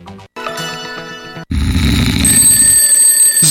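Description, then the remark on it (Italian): A loud alarm clock goes off: a steady electronic tone first, then a harsher, rattling ring that keeps going to the end, with no voices. “Sveglia, sveglia!”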